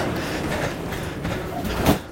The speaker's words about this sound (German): vorne ist meine U-Bahn.